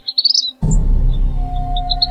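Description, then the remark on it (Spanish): Birds chirp in quick, high-pitched bursts on a university campus near Tepatitlán in Los Altos, surrounded by agave fields, trees and cacti. The chirps repeat throughout, at first alone and then over a steady low rumbling noise that begins partway through. “a veces es posible ver aves que bajan de los árboles para buscar alimento”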